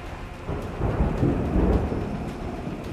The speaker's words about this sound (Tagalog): Panay pa rin ang buhos ng malakas na ulan.